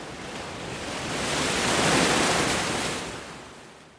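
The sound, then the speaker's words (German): A single wave of surf swells up, breaks with a broad hissing rush, then recedes, loud with no voices. “Und ich schreibe die Meeresgeräusche auf und das ganze irre Gedicht”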